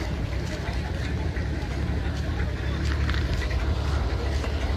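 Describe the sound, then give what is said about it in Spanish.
A motorboat engine drones steadily, a continuous low rumble with broad windy noise throughout and faint muffled voices underneath, as a motorboat returns to Playa Majagua beach in Acapulco during a shooting. “Vinieron a balasear, le dieron a varios y ahorita regresó una lancha a balasear”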